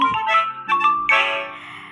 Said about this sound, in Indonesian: aduh maaf itu notif dari grup WhatsApp